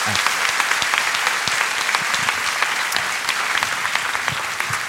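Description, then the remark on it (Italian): Steady, dense applause from a crowd, many hands clapping in a continuous loud wash of sharp claps lasting the whole stretch, with no speech over it. “Però grande applauso.”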